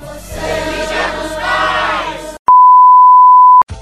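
signal or alarm, phone notification beep

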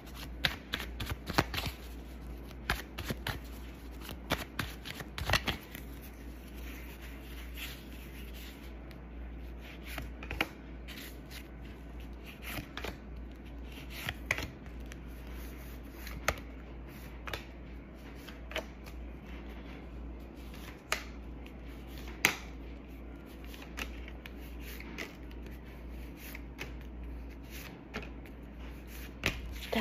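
household object, shuffling tarot cards

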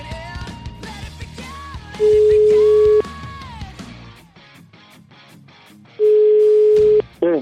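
signal or alarm, telephone call being dialed

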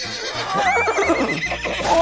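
animal, horse neighing

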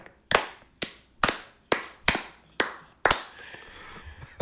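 crowd, slow clap

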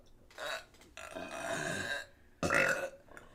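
human body sound, a burp

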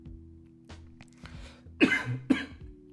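human body sound, coughing

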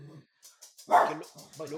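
animal, small dog barking

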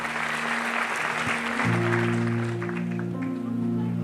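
crowd, audience applauding

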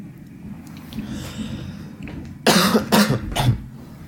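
human body sound, cough

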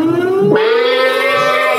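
signal or alarm, siren sound effect

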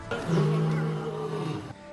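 animal, lion roaring

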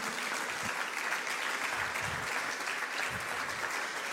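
crowd, audience applauding loudly

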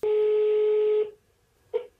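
signal or alarm, phone dialing tones

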